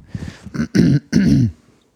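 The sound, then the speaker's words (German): A person clears their throat, a couple of short rough grunts building into two stronger, gravelly bursts, then quiet. No speech accompanies it. “Und, äh, oh, jetzt kann ich mal wieder die Räuspertaste testen, ob sie diesmal wenigstens geht.”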